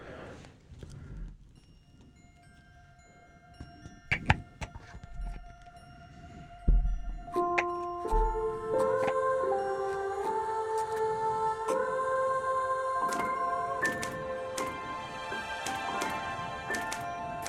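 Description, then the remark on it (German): The main opening theme of the anime Violet Evergarden starts with sparse, sharp typewriter clicks and taps, then swells into layered sustained melodic notes that climb in steady steps, with crisp clicking accents continuing over the music. “Das ist das Hauptintro.”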